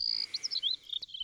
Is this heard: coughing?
no